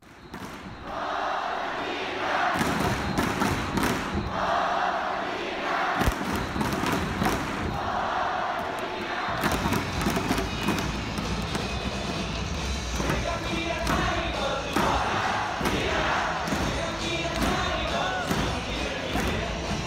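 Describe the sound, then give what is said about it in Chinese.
A baseball stadium crowd in Korea's KBO league chants player Bernadina's cheer song in unison, loud and unbroken, driven by steady pounding drum beats and rhythmic clapping throughout. “那我先放一段布拉蒂娜在 KBO 奇亚湖的应援曲哈，给大家听一下。”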